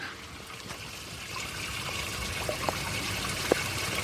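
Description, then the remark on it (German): Brine trickles steadily down over the branches of a graduation tower, a dense hiss of dripping water heard up close, with a few sharper individual drops standing out near the end. No one speaks. “Da tropft es ganz gewaltig.”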